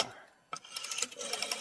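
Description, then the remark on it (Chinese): A mechanical clatter of quick, rapid clicks as an old wall-mounted rotary telephone, of the kind from the 1920s or 1930s, is dialed, starting with a sharp knock and running as a fast, bright ticking for about a second. “就是老式电话，这个就是一个耳朵，这个跟现在很不一样。拿这个拨的是吧？”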